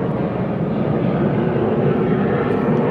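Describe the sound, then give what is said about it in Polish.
A loud, steady roar of an airplane passing overhead, a broad continuous rumble that fills the whole clip without letting up. “Więc słuchajcie, e, czekaj, bo tutaj samolot, wy go pewnie nie słyszycie dobrze, ale ja sam siebie nie słyszę.”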